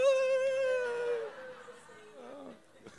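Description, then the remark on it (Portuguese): A voice imitating women weeping: high, wailing sobs, a long quavering cry that slides downward and trails off into softer, broken whimpers, fairly loud. “Aí vem elas assim, chorando. Meu Deus, cadê o meu Senhor? Chora, chora.”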